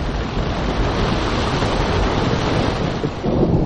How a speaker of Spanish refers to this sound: Pero cuando se preparaba para dejar la cueva, un aguacero fenomenal descargó su furia sobre la montaña.